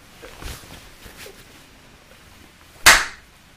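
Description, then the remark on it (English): One sharp, loud hand clap cracks out near the end, preceded by a few faint, soft knocks and rustles. No one speaks. “Messed the clap up. I'll do it again?”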